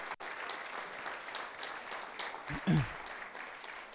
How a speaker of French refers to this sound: Est-ce qu'on peut les applaudir, les nouveaux mariés, ce matin? Vraiment, là, ils sont là.